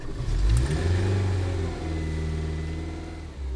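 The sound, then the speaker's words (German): The small car of Pater Clemens Habiger, a monk, revs up and pulls away as he sets off to visit prisoners, its low hum rising in pitch then settling into a steady drone before easing off near the end. “Er ist schon wieder in seiner Pfanne unterwegs.”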